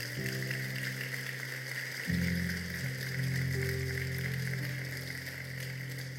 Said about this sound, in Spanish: Vamos a darle su mejor aplauso al Señor.